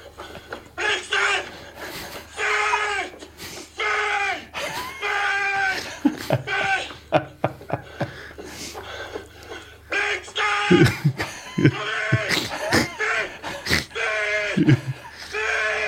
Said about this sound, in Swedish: Det där är ett typexempel. Alltså, när han skriker på hunden så får ju hunden världens stöd. Alltså, kom så tar vi gubben. Kom, du också. Vi tillsammans. Bra, vi tar fanskapet. Det är vad han säger till hunden där. Han eldar på hunden ja.